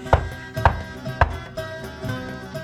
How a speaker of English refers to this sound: Eclipse and Freya, you hear a hammering knock on your door.